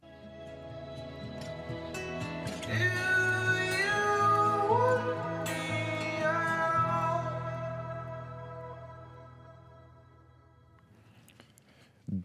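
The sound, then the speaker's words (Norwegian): A rock song plays loud and full, with a wailing vocal line over sustained guitars and a heavy low end, then thins out and fades toward the close. “vi hører en sang, vi. Dette er … med ….”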